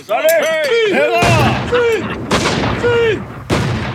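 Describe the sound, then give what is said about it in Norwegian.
A ceremonial gun salute: three loud, booming shots about a second apart, each rolling off in a long echo, with voices calling out before and between the blasts. “Skål. Og, og salut!”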